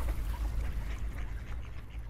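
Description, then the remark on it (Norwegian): Many ducks quack in scattered, overlapping calls, set against a steady low outdoor rumble like wind or traffic. “Det eneste jeg har funnet, er masse ender.”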